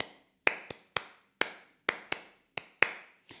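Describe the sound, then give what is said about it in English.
A teacher performs a body percussion pattern for students to echo: about nine sharp claps and taps in an uneven, syncopated rhythm, each crisp and fairly loud with a quick decay, with no voices. “And I can do that a couple different times, maybe like four different body percussion patterns.”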